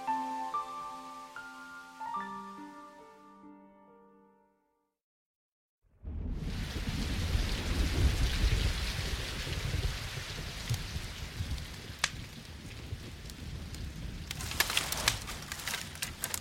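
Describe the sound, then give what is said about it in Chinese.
Soft melodic tones fade to a brief silence, then heavy rain, which has been falling for three days, bursts in as a loud, steady hiss with a deep rumbling underneath, continuing to the end with sharp crackles. “大雨已经下了三天了”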